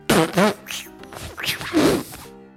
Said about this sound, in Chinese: …放屁了，好大的一声响屁！